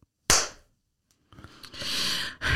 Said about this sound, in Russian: Второй хлопок